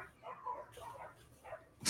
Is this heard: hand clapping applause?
no